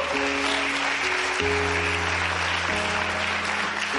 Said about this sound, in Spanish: Alguien puede darle un fuerte aplauso al Señor.